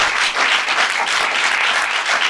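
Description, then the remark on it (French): A large audience at a comedy show in a theatre applauds steadily to make noise for the theatre hosting them, a dense, continuous wash of many hands clapping at once, loud throughout with no talking over it. “J'aimerais aussi qu'on fasse, s'il vous plaît, un maximum de bruit pour le théâtre Beau Saint-Martin qui nous accueille aussi.”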